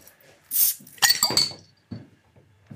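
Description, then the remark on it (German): A bottle of Grevensteiner Original naturtrübes Landbier with a crown cap is opened: a short airy hiss, then a sharp glassy clink with a brief ringing tone, followed by a few faint knocks. Nobody speaks. “Oh, das klang gut. Ja, das war, das war wie so ein Werbegeräusch.”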